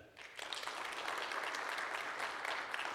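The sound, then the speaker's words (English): An audience claps together to vote in a clap-off, for the guess that 30% of American homes have a nativity scene, in a steady, dense burst of applause that holds at an even level for a few seconds, with no one speaking over it. “Um, so if you think 30% of American homes have a nativity scene, clap.”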